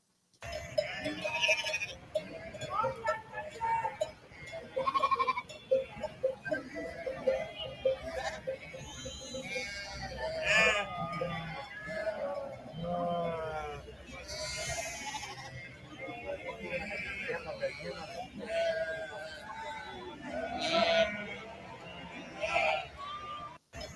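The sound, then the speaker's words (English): A large flock of sheep bleats continuously at a farmers' protest in France, many overlapping cries rising and falling, with a busy background din of crowd noise and indistinct voices. “Now, something I love about this, and any farmer out there with half a brain will tell you one thing sheep produce a lot of is shit.”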